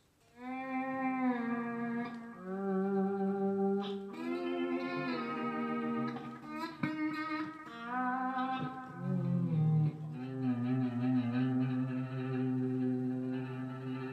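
An electric guitar played through an effects pedal, its notes ringing out long and full with heavy sustain, shifting between a few held pitches at a steady, loud level with no talking.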